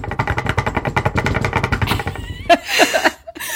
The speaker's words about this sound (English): Sorry for all the banging. We're just knocking on all the wood we can find.